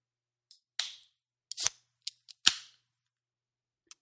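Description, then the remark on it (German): A few sharp metallic snaps and pops, several followed by a brief fizzy hiss, as bottles of alcohol-free beer are opened one after another, with no talking. “einen Bruce Willis-Film irgendwie mit alkoholfreiem mhm. Bier äh, zu verköstigen”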